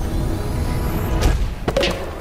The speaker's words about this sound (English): So off went Pookie and Harry back to the record player. It set off with a whoosh, a flump, and a great big thump